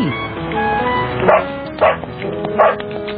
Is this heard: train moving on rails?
no